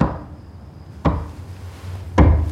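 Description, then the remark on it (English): Two heavy, hollow knocks land about a second apart at night in a dark house, echoing slightly from down the hall, over a low, steady background hum. “She's woken up by the sound of footsteps and a strange knocking down the hall.”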